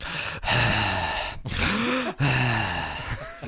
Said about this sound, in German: also, wie so ein älterer Mann, der auf dem Spielplatz hockt, rumatmet.